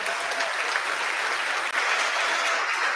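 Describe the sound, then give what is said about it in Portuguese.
A steady round of applause from a crowd for the members of UNEAFRO, dense clapping at an even loudness throughout, with no voices rising above it. “Muito obrigado a vocês, minhas companheiras da UNEAFRO, uma salva de palmas, por favor.”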